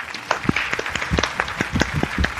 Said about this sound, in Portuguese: Perfeito, salva de palmas.